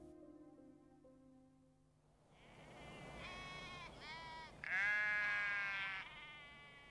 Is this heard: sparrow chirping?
no